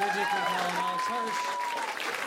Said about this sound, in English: Please give a round of applause to our panelists,